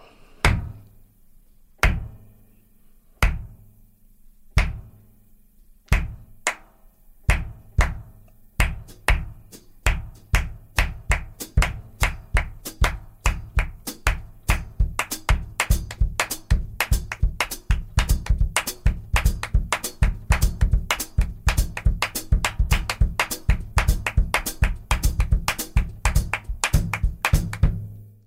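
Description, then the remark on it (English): Rhythmic percussion on a drum set, without any talking, demonstrating rhythm variations: sparse, sharp hits at first, building into a dense, fast, driving pattern of layered strikes over a steady low drone, growing louder and busier throughout. “can you can you demonstrate what we're talking about in terms of the various the various rhythms and Certainly.”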